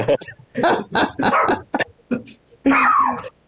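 A dog named Laura lets out a quick run of loud barks and yips, pauses briefly, then ends with a longer, drawn-out whining bark.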